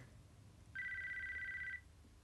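A phone's incoming-call ringtone sounds once, a steady high electronic tone lasting about a second before cutting off, with only a low hum before and after and no one talking.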